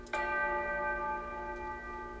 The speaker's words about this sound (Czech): to jsou pičlí dva samply, kde, kde jeden z nich byl jakože church bell, prostě zvon.